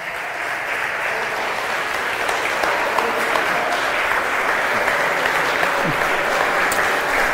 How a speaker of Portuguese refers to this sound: Aplausos ao Senhor.